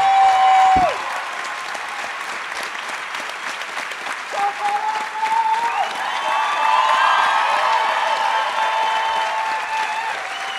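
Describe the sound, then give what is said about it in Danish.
A large audience claps loudly and continuously for the hosts of a show at its end after 109 episodes, with shrill whistles and cheers rising over the dense applause, which stays strong throughout without any speech. “Giv Troels, Jakob og Christoffer en kæmpe stor hånd.”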